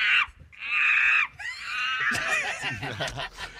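Women let out high-pitched, excited screams: two long shrieks close together, then a jumble of squeals and giggly laughter, fairly loud.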